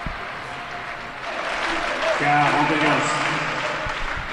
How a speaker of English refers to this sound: if you can hear that, ooh la la, ooh la la, it's four of the loudest spectators I think I've ever heard in my life, all wearing white caps and standing up after every point Djokovic wins.